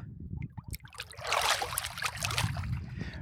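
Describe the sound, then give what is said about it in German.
Water sloshes and laps gently at a swimming pool on Mallorca, with small splashes and a steady liquid wash over a low background rumble, no voices. “Wir sitzen heute wieder am Pool”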